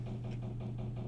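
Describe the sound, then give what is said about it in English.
A household washing machine running a wash-day load bangs in a steady, rapid rhythm, about four thumps a second, over a constant low motor hum. No one speaks. “And I apologize for that little banging in the background.”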